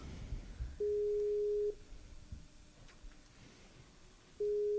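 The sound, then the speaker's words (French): An outgoing Skype call's ringing tone: a steady, mid-low electronic beep held for about a second, a long pause with faint background noise, then the tone starting again. No one speaks. “Il y, a Juliette sur, le, sur Skype qui voudrait nous parler de son expérience en Inde.”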